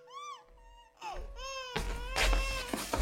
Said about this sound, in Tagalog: Baby, mommy's here, so stop crying na, okay? Ano pang gusto mo? You want milk? Are you sleepy? Please, stop crying na!